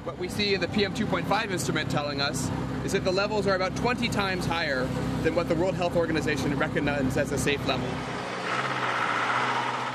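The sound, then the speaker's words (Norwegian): An open, motorized three-wheeled auto-rickshaw's engine drones steadily amid dense New Delhi street traffic of other rickshaws, cars and buses, with a voice talking over it nearly the whole time; the rumble cuts out near the end. “Den motoriserte sykkeldrosjen på tre hjul er åpen. Forurensningen fra de andre rickshawane som konkurrerer om plassen med biler og busser av alle slag”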